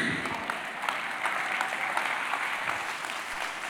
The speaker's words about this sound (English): Your clappers in the house. Your clap in the house.